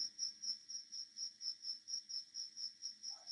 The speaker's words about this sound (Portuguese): Até superou o barulho do grilo, a sua opinião aí, de tão boa que ela ecoou